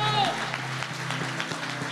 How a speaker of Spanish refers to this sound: Dele el aplauso.